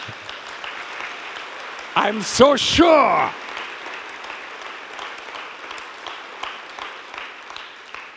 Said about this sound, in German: Geben wir ihm mal einen Applaus da.